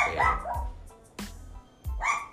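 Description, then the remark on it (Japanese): A dog barks in a few sharp, loud bursts, with short pauses between them and no one speaking. “おい なワンワンが。”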